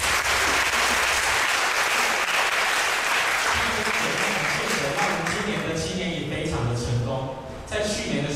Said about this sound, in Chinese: 所以好不好？让我们真的最后拍手，将一切的荣耀归给神。